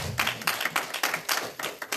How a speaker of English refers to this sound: Praise the Lord. Let the church say amen. amen. Yeah, give God a good hand clap this morning.